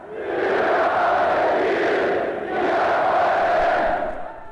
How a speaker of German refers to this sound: Im Sportpalast tobt der Saal im fanatischen Wahn, beschwört die Treue zum Diktator.